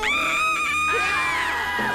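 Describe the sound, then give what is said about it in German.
A shrill, sustained scream from a horror film being shot rings out loud for about two seconds, wavering in pitch as it trails off, with no talking over it. “Der letzte Schrei. Na, Lust auf eine Kostprobe?”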